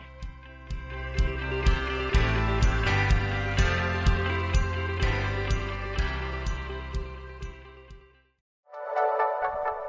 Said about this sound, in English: And I, my gosh, I'm hearing the music. The show is already over.